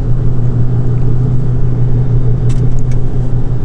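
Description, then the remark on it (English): Steady low engine rumble and road drone of a car being driven on the way to work, loud and constant throughout, with a few faint high clicks or ticks near the end and no talking. “So, like I said, I'm on my way to work. I am driving, but I am hands free uh, because that is the law.”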